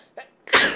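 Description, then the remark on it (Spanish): A single loud sneeze: a brief sharp intake of breath, then an explosive breathy burst that trails off quickly. No one talks. “Terminé estornudando”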